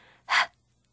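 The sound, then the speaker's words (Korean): A single breathy exhaled "h" sound, like a puff of wind, lasting a fraction of a second, showing how to pronounce the English letter H in a children's phonics lesson, preceded by a faint softer hiss and followed by quiet. “흐 이렇게 하면 안 되고 바람 소리처럼”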